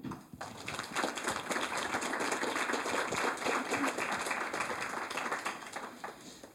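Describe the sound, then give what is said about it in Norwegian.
An audience in Bergen applauds a panel at a Klassekampen book magazine event, a dense, even patter of many hands clapping at once for several seconds, holding fairly loud before tapering slightly at the end. “Gi dem en applaus.”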